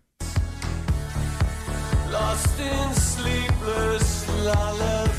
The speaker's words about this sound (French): pour vous donner une petite idée, le nouveau single, ça sonne comme ça